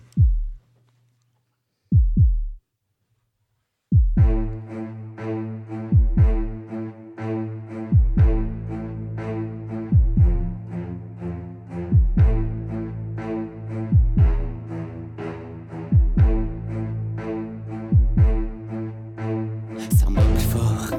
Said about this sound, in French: Et donc voilà, on est là pour faire aujourd'hui la promo avec ce magnifique morceau qui vient de sortir, qui est inclus aussi dans l'EP. Allez l'écouter, c'est sur toutes les plateformes.